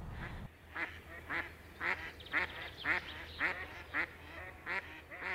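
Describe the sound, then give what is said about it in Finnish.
Mallard ducks quack repeatedly in a steady series of raspy, nasal calls about every half second, with a low background rumble and no talking. “näitä just sinisorsia on sitten alettu viimeistään 1930-luvulla ruokkimaan”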